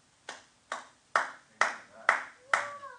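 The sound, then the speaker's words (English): Six slow, evenly spaced hand claps from a man in a video playing on a screen, each a sharp, loud smack with a short decay. The later claps carry a faint ringing, whistling tone. “See, you can leave the screen up there so he'll just keep clapping.”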